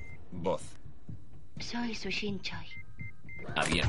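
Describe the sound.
A safe in a study being unlocked and opened by holding a mobile phone up to it: a few short, high electronic beeps in a quick sequence, clear but not loud, heard over and between a person talking.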